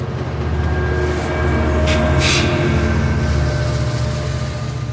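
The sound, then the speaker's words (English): An Amtrak train to New York rumbles steadily along the rails, a loud, continuous low drone with rhythmic clatter and a brief hiss of air partway through; no one speaks. “Josue takes me to Amtrak, and I take the first train by myself to New York”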